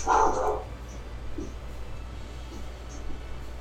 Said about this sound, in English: Sorry, can you all hear my roommate's dog? Just a little. Excuse me.